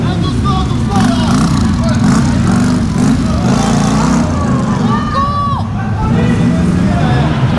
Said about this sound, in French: un moteur qui force.